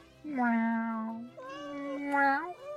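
A white, black and brown female kitten with green eyes meows twice, fairly loud, each cry long and drawn out with a rising, wavering pitch, the second one slightly longer and ending on a higher note.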